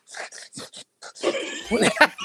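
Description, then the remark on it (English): A voice mimics squeaking shoes: several short, high, whiny squeaks in quick succession, then a longer, louder squealing stretch that rises and wavers. “You ever heard somebody's shoes go”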